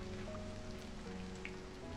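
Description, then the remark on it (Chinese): Rain falls steadily, making a continuous soft hiss with faint scattered patters. A low, constant hum runs underneath, and no one speaks. “听到下雨的声音，好像睡觉。”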